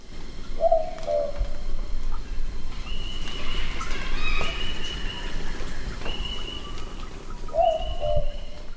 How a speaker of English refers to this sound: but let's also listen to the sound of the boobook which might be something that perhaps more common, uh, and so that we start to hear the difference between these owls.